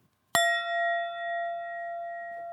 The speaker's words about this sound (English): Sagov picks up a brass bowl and hits it with a little mallet.